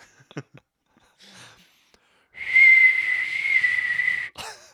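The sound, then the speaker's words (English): A person whistles a long, breathy, airy tone imitating wind, sustained for about two seconds, preceded by a few short clicks and breaths. “That sounds like the um, wind outside.”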